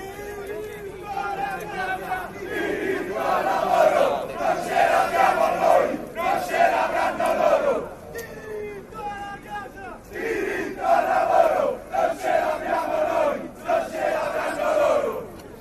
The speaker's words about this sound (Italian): però può essere interessante sentire cosa il coro cantato da questi giovani della galassia dell'estrema destra.